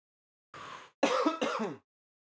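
A loud burst of coughing: one breathy hack, then two rough, throaty coughs in quick succession, with no talking.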